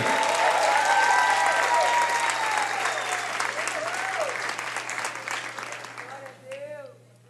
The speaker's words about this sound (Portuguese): Vamos receber com uma salva de palmas